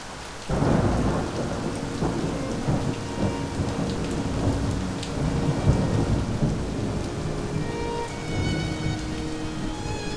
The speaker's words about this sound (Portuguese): Com a persistência da chuva, as pessoas iam se recolhendo